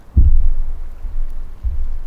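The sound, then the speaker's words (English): Two deep, muffled thumps roughly a second and a half apart, each a low booming pulse that lingers briefly, with no voices present: geothermal gas bubbles leaking in from underground and imploding underwater in Black Sand Pool, Yellowstone National Park. “As these gaseous globules implode in the water, they make a thumping sound.”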